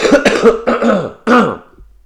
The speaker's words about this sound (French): Euh, mais euh, attends, j'ai toussé un coup, ça va dégager.